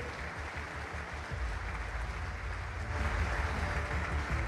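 An audience applauds the speaker's mentor, a dense, steady wash of many hands clapping that continues throughout and swells slightly louder toward the end, with a low rumble underneath and no voices.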